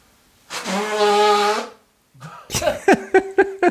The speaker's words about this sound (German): Ich weiß nicht, wie ich das, ob ich das später noch runterregel oder so, aber ich muss jetzt mal ganz kurz den Kopfhörer abnehmen und mich ganz tierisch schneuzen. Ich mache auch das Mikrofon weg. Moment. Hört genau hin, Leute.